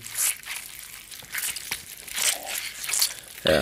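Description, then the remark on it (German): Wet, squishy squelching of a leather rag soaked in a little water being squeezed and wrung as a film gore sound effect, in irregular crinkly bursts with no voices, ending in a sharper, louder squish. “oder äh, der Sabber irgendwie aus dem Mund läuft oder so, ist eigentlich immer ein Lederlappen, der natürlich in äh, irgendwie so ein bisschen Wasser getränkt mhm. wird.”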